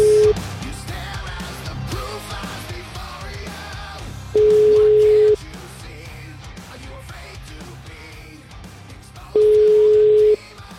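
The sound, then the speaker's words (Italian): A phone line ringing as the Italian radio show La Zanzara calls back a woman lawyer: a steady mid-pitched tone sounds for about a second, then repeats roughly every five seconds, loud over a faint murmuring background bed. “Beh, richiamiamola, richiamiamola perché l'hai trattata male l'ultima volta e devi chiedere scusa.”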